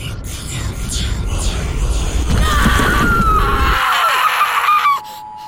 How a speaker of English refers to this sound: And then it opens up, and I'm swallowed by the light. This is the part where I scream.